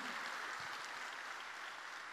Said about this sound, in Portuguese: Glória a Deus. Aplauda aí, Senhor. Obrigado.